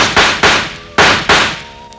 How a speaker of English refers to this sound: This time, when he fired, his eyes were closed.